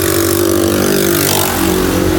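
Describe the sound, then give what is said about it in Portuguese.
A loud motorcycle engine roars as it passes, its steady harmonic drone shifting in pitch, with no voices over it. “É, passou uma moto aqui muito alta, doeu até no meu ouvido, espero que não tenha doído no de vocês.”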